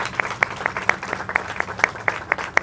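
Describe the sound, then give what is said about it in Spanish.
Applause at a Holy Eucharist celebrating the 32nd anniversary of an institution's founding: sharp, crisp claps falling in a steady, fairly quick rhythm, about eleven distinct beats over a low murmur of background noise, with no voices. “Un aplauso para todos ustedes en esta semana de aniversario.”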